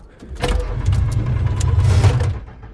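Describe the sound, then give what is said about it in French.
A car engine cranks with a steady low churning and a few sharp mechanical bursts, but it never catches and runs. No one speaks. “Merde J'arrive plus à démarrer”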